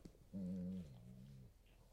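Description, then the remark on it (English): A dog lets out a single drawn-out whimper, a steady high whine lasting about a second that dips slightly in pitch and fades, heard clearly on its own with no talking. “that was my dog.”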